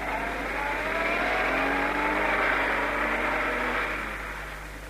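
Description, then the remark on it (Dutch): A car engine revs and accelerates steadily, its rising harmonic whine building over a low steady hum, then slowly fading as the car drives off. No one speaks. “Quentis, ik rij weg.”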